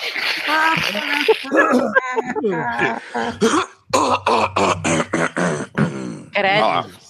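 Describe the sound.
A string of short, sharp coughs and a throat clearing break in, overlapping a man talking steadily, with a few rapid bursts bunched together in the middle.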